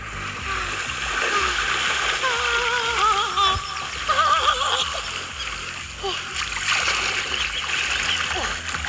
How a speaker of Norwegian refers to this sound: Sjøl starta jeg uka med en liten miniferie hjemme på Hamarøy. Uh, Eh, og tror du ikke det ble skikkelig fint vær? 19 grader i skyggen. Og jeg bada til og med. Skal vi høre lyden av det litt?